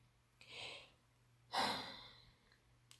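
Two slow, airy breaths, a soft inhale followed by a stronger, longer exhale, with quiet pauses and no talking.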